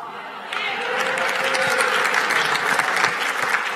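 Audience applause swells in abruptly after a brief quiet moment, then holds as a steady, dense wash of many hands clapping at an even loudness, with no voices standing out.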